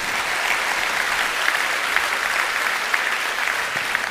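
Steady audience applause, a dense wash of many hands clapping at an even loudness for about four seconds, with a few sharper individual claps standing out and no talking.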